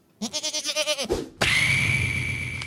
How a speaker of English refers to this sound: Well, play. Do you have the goat sound as an example to play?